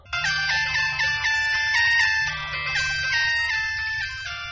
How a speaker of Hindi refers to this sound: अरे फोन की घंटी बज रही है हाँ।